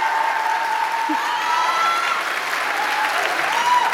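An audience applauds steadily for about four seconds, a dense, even clatter of many hands clapping with a faint tonal whistle or cheer running through it.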